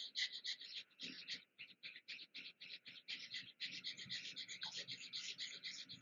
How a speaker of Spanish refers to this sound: Entonces, inhala profundo, exhala y empezamos. Inhala la mitad y respiración de fuego.